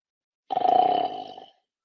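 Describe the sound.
A single drawn-out snore imitated by a human voice, a rough, throaty rasp lasting about a second, fairly loud, with silence on either side.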